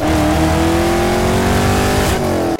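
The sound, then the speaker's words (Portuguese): A car engine revs loudly and steadily, its pitch climbing slightly before a brief shift near the end, with no voices. “aquele barulhinho de Velozes e Furiosos”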